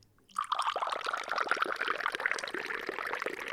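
Atay (tea) pours steadily into glasses, a continuous bubbling, gurgling stream with a rising pitch as each glass fills, starting abruptly after a brief silence and running loud and unbroken to the end.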